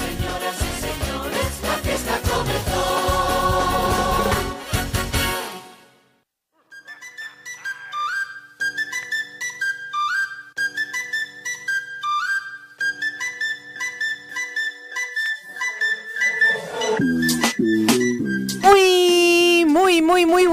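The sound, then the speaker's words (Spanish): Drums pound loudly for about five seconds in a dense burst of rhythmic hits, opening the show Más divertido, menos aburrido, then give way to a bright, whistle-like melody that carries the rest of the piece. “Suena la los tambores.”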